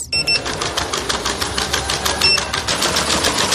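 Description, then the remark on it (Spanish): A robot guide dog that accompanies blind people makes mechanical clicking: a rapid, steady train of sharp ticks, fairly loud, with a couple of brief faint electronic tones mixed in and no talking. “te presento a Etefi Tefi es el perro robot que acompaña a personas ciegas”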